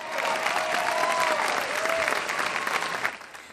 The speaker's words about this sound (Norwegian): Folk jubler. De fleste tilhører høyresiden, den såkalte Tea Party-fraksjonen i Det republikanske partiet.